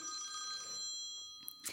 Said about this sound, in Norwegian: Er det en fasttelefon jeg hører? Nesten.